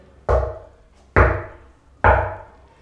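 Three heavy knocks on a front door, evenly spaced about a second apart, each a deep booming thud with a short resonant decay, loud with no voices.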